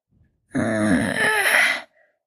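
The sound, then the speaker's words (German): A single drawn-out yawn voiced by a person for a waking wolf, rising into a strained, stretching groan that lasts over a second before cutting off, fairly loud with no other talk. “gähnte dieser und fing an, sich zu recken und zu strecken.”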